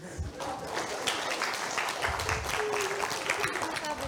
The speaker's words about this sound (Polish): Dobra, brawa proszę.